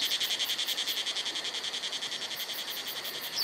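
cicadas singing

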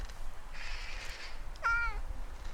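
cat meowing

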